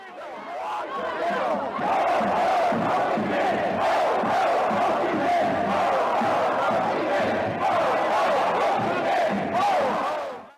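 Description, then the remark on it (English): A large crowd chants "Ho Ho Ho Chi Minh" in unison, many voices shouting the repeated rhythmic slogan at a steady, loud level throughout, at a protest march against the Vietnam War. “This chant, Ho Ho Ho Chi Minh, was often heard in protest marches against the Vietnam War here and overseas as a way of showing respect and support for the veteran leader of the Vietnamese independence struggle.”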